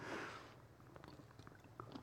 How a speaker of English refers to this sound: Forgive me for you have to hear my nasty gulps.